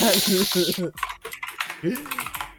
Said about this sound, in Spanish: Esas son Cherry Blues, estoy seguro. ¿El teclado? Pregunta por teclado. Sí, son Cherry Blues. No, si el sea cacha, de hecho, con puro oído ya cacha.